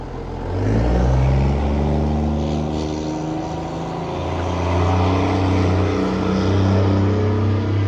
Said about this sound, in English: We're going to pause for just a moment. There's a we're outside and there's a very loud truck that just drove by.